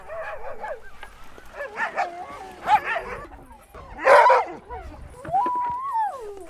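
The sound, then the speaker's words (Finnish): A pack of Greenland sled dogs bark, yip and whine in a busy, overlapping chorus, with sharp high yelps and a rising howl-like whine near the end, loud. “Koirien täytyy löytää paikkansa laumassa.”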